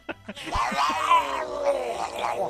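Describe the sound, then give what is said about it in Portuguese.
A voice imitates a growling, rumbling stomach with a long, drawn-out groan lasting about two seconds, preceded by two short breathy puffs. It is fairly loud, with no other sounds. “Barriga grita, né, cara? É, o estômago tá dizendo assim, pô, meu, Socorro, precisava né, disso, cara.”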